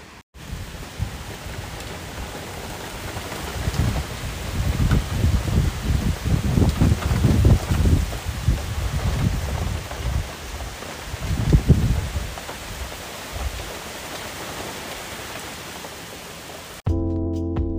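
Heavy rain pours outside the window at 1:08 a.m. in a steady, dense hiss while strong wind rushes in swelling gusts, loudest around the middle. No one speaks; a brief different sound cuts in at the very end.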